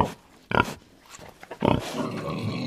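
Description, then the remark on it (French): A pig grunts in two loud bursts after a peach falls on its head, a short one and then a longer, rougher run of snorting grunts that trails off into a steady low rumble. “L'oiseau lâche le fruit et le voilà qui tombe, qui tombe, et qui atterrit sur la tête d'un des trois frères cochons.”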